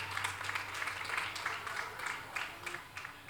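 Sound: audience clapping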